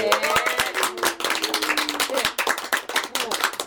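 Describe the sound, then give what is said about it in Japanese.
A crowd of about 700 people breaks into steady, dense applause, a continuous crackle of many hands clapping at once, with a faint voice briefly audible beneath it near the start. “でもそれも700人の拍手だね今ね”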